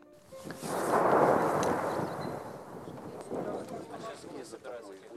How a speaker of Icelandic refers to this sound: Og í fjerska heyrist sprengjuregn.